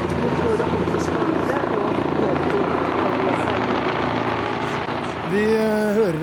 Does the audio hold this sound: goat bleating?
no